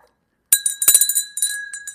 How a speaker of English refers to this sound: that's what unringing a bell sounds like.